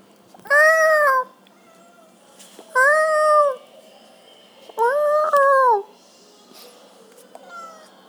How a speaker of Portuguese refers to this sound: Agora eu tô aqui do lado do gato. Fale comigo, gato. Miau!